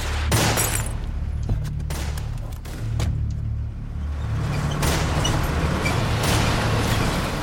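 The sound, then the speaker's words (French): A rapid, irregular volley of sharp gunshots as prison guards fire on the fugitives' car during an escape from the Saint-Vincent-de-Paul penitentiary, over the steady low rumble of a car engine, with several shots bunched together and no voices. “Plusieurs d'entre eux font feu sur la voiture des fugitifs.”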